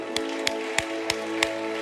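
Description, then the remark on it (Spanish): An audience at a church service claps together in steady unison as a loud applause for the Lord, five sharp claps on a regular beat, heard over sustained instrumental music. “Dale un aplauso fuerte al Señor.”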